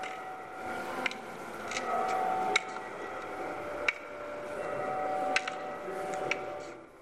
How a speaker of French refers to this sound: il s'agit du bruit produit par un bâton de marche utilisé par les patients aveuglés par la maladie